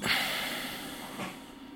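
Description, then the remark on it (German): A patient lets out a single long, breathy exhale after holding a deep breath. The exhale is loudest at the start and slowly trails off, with no talking. “Jetzt wieder ausatmen.”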